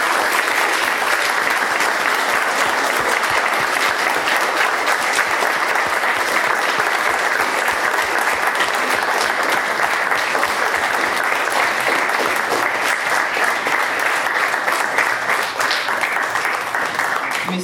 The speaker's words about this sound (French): j'aimerais que vous fassiez un tonnerre d'applaudissements pour nos deux invités